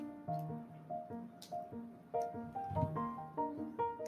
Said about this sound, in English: I don't know if you guys heard that. that was my phone, and I'm just going to keep going. But um, anyway, real life situation. My, my Siri, Siri was going off.